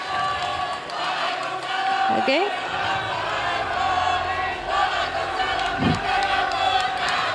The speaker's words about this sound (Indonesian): Baik, berakhir sudah sesi tanya jawab antar calon presiden. Kita masih akan lanjutkan lagi, tapi silakan beri tepuk tangan yang meriah dulu untuk sesi tanya jawab tiga calon presiden.